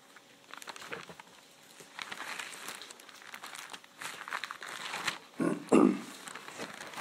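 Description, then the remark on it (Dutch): Papery rustling and crinkling as book pages are handled and flipped to look up 1 Corinthians 4, coming in uneven bursts with a couple of louder crisp turns near the end, and no talking. “Um, ik zal hem er even bij pakken.”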